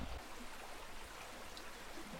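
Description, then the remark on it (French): The Élorn river flows steadily with a continuous rushing, bubbling wash of water, fairly soft, with no voices. “Au fil de l'eau, s'il n'échoue pas sur les bords de la rivière, le plastique de l'Élorne finit ici, dans la rade de Brest”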